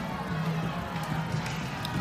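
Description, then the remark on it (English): An angry crowd shouting and running at night outside an inn, bullying a woman, amid flames; a dense, steady wash of overlapping voices and scuffling movement that holds at an even, moderately loud level throughout the short stretch. “As mother and daughter wake, they stare out the window to see a woman being bullied by the crowd.”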